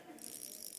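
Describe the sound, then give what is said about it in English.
A fishing reel's drag buzzes in a rapid, continuous run of fine clicks, a steady ratcheting whir heard on its own with no voices, fairly soft and sustained throughout. “the sound of the drag. Y'all don't know what that sounds like.”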